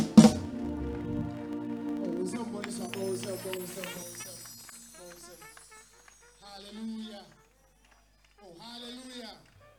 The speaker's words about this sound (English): Now, somebody put your hands together for Jesus and give a shout. Clap your hands, all you people, and give a shout unto God in the name of Jesus.